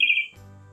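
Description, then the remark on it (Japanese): A single short, high-pitched bird chirp rings out clearly for a moment, then gives way to a low, steady electrical hum with no talking. “あ、今鳥が鳴いた気がします。”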